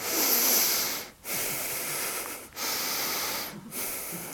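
Shallow, rapid breathing high in the chest: four airy, hissing breaths with brief pauses between them and no talking.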